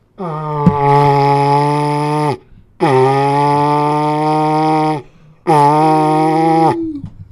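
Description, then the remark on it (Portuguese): A man's voice imitates cattle mooing as a closing sign-off tribute to the 'cattle': three long, low, droning moos of about two seconds each, loud and steady, with short pauses between them and the last one sagging in pitch at the end. “Isso aí, meu encerramento para uma homenagem aí pro gado.”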